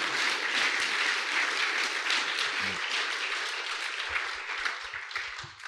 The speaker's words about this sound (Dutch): Zullen God alvast vooraf een applaus geven? Halleluja.